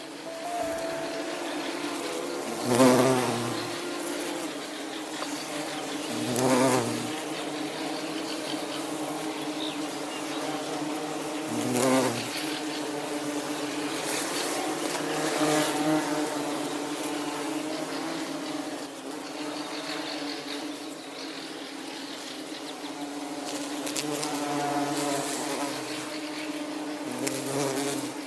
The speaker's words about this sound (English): And now the sound of the bumblebee.